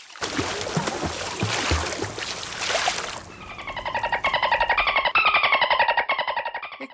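A dolphin sound effect: about three seconds of loud splashing, rushing water, then rapid pulsed chattering and high squeaky whistles that rise and fall in pitch until the end.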